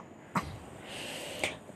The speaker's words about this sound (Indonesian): sorry masih sedikit batuk